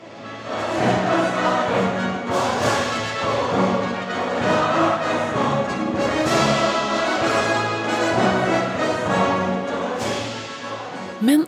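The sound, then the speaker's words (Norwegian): The Trondheim Symphony Orchestra plays a sweeping, sustained passage of music from the video game Skyrim, with rich strings and brass, steady and loud throughout, with no voices, ending on a sharp accent. “For musikere som er vant til å spille Mozart, Brahms og Grieg, hvordan er det å spille musikken til Skyrim, som vi akkurat hørte TSOs versjon av?”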